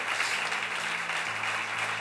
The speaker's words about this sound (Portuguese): Aplauda ao Senhor mais uma vez por fé.